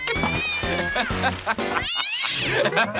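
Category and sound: animal, cat meowing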